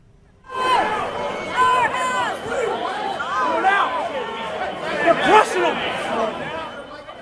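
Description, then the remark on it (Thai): A dense crowd of rioting protesters supporting President Donald Trump at the US Capitol building, shouting and yelling over one another, loud and continuous from just after the start, with overlapping raised voices and chaotic hubbub throughout. “สภาพโกลาหลวุ่นวายเข้าข่ายจลาจลที่อาคารรัฐสภาของสหรัฐ หัวใจของประชาธิปไตยของประเทศ ผู้ชุมนุมก่อเหตุเช่นนี้”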